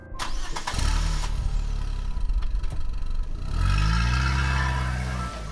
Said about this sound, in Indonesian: terdengar deru suara motor 150 cc laki-laki itu menjauh.